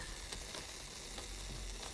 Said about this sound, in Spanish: te tengo una olla hirviendo, mira.